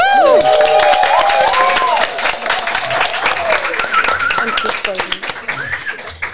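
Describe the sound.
A crowd claps steadily with scattered cheers and whoops, loud at first and thinning slightly toward the end, with high excited voices rising over the dense patter of hands.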